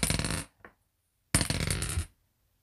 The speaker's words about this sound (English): Now with leech seed, what we're gonna have to do is if it hits, uh, we'll have to roll a dice every turn.